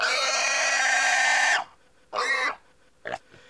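A pig grunts and oinks loudly: one long, harsh, drawn-out call, then a pause and two shorter bursts. No one speaks.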